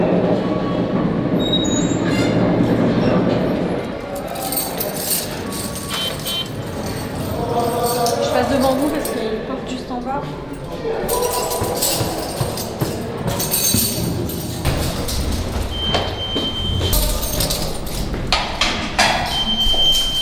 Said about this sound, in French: ces, bruits de serrure qui étaient censés, comme ça, peut-être euh, empêcher l'agressivité des bruits des clés euh, dans les vraies serrures. Les serrures électroniques sont, sont, sont pires qu'avant.